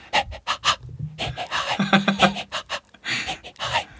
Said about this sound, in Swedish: Och en melodi i mitt liv är mitt ljud som jag gör, min mm. melodi av andningen som jag gör när jag springer. Har exakt är samma.